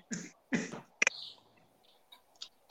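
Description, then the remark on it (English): Two harsh, throaty coughs in close succession, fairly loud, followed by a sharp click and a few faint, scattered noises in otherwise quiet surroundings. “One cough, that's it, or you gotta go.”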